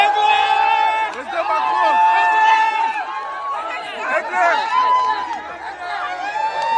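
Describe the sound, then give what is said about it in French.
Dense crowd chatter from a walkabout among a crowd fills the whole stretch, many overlapping voices blending into a steady, fairly loud babble with no single speaker standing out. “Allez, je vous remets le bain de foule.”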